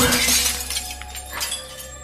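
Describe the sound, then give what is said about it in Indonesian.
A glass cabinet shatters with a loud crash as a doll is thrown into it, shards tinkling and scattering for a couple of seconds afterward, with no voices. “Aku masih berusaha melepaskan boneka itu sampai akhirnya terlempar ke lemari kaca yang ada di depanku.”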